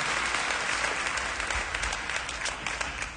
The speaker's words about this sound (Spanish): Si usted recibe eso, aplauda a Jesús, por favor.